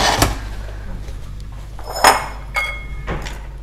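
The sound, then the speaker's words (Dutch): A few sharp metallic clinks and knocks of a pan being stirred and placed over the heat source, some ringing briefly, spaced irregularly over a few seconds against a low background hum, with no talking. “Ik ga roeren. En dan ga ik hem boven de...”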